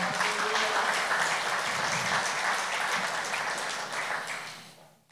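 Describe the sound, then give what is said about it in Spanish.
A crowd applauds the Lord steadily, a dense wash of many hands clapping at an even loudness before tapering off at the end. No one speaks over it. “Créame, dale ese aplauso al Señor.”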